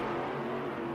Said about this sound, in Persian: گاز سنگینی میداد و بعد از چند ثانیه یه لحظه به موتور امون میداد تا خودشم نفس بگیره دوباره گاز